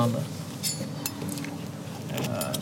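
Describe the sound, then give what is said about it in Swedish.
A person feels their way by hand over a plate and cutlery at a place setting, with several light metallic clinks and scrapes of utensils against the dish over a soft background hum. “Känner på tallriken. Besticken eh. ska ligga till höger om tallriken.”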